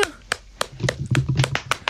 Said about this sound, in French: on applaudit les bénévoles, voilà, et pas juste les, les millionnaires qu'on applaudit. On applaudit les bénévoles